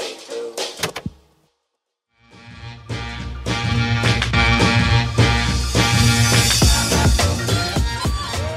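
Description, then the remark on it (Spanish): Loud bells ring out in repeated overlapping clangs with long shimmering tones, briefly dropping to silence before resuming in a dense, continuous peal. No one speaks. “Ay, disculpen las campanas, esto ya se va a escuchar, entonces ya, ya, ya ahorita ya no.”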